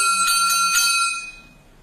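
A small bowl-gong (xiangzhan) of nanyin music is struck about three times in quick, even succession, giving a bright, high metallic ring that lingers and fades after the last stroke.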